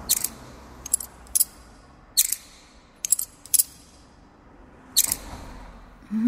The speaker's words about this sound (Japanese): 吸ってないよ、タバコなんて。いや、でもライターの音が。